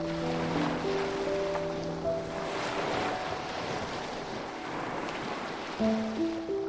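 A steady wash of surf rolls in and recedes on a beach in a bay, swelling gently around the middle, with soft sustained musical tones layered on top and no one speaking.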